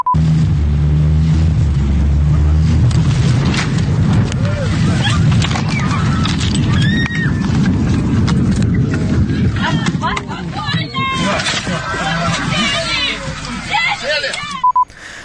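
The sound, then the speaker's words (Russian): Inside a Ural Airlines airliner cabin on a flight to Simferopol, during an emergency landing after a bird struck the left engine: a loud, steady low roar fills the space while many passengers' voices rise in agitated, overlapping shouts and cries, continuous. “Один из пассажиров рейса уральских авиалиний снял экстренную посадку на видео. Во время приземления э, люди в салоне начали паниковать.”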